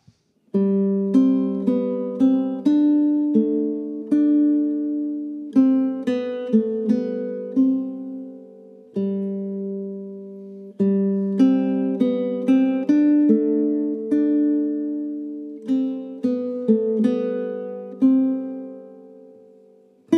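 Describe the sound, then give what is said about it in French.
A solo guitar plays a gentle melodic piece from a Guitar Class tutorial, plucked notes ringing over sustained low bass tones in phrases with short pauses between them, moderately loud with no voices. “c'est quand même intéressant de pouvoir, euh, dès le premier morceau, euh, exploiter et toucher du doigt cet aspect spécifique de la guitare. Allez, maintenant, on écoute.”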